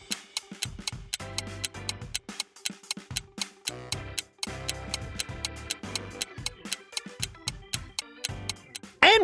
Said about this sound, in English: All right, 10 seconds are on the clock. Let's get solving.